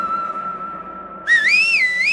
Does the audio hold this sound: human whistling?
yes